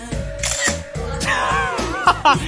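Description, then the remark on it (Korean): A rapid flurry of camera shutter clicks, several sharp snaps in quick succession from multiple cameras, layered over a murmur of voices, during a photo time for Sejeong at an event. “포토타임 가져도 될까요?”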